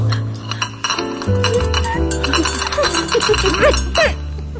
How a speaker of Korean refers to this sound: 찻잔 소리